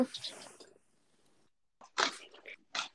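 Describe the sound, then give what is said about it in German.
A loft bed creaks in a few short, irregular crackling bursts, dry and fairly loud, following a muffled murmur of voice and a quiet pause. “Warte, warte, wenn es jetzt kurz knarzt, das ist halt wieder mein Hochbett natürlich.”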